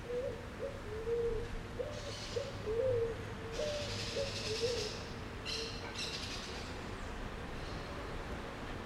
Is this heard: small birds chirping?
yes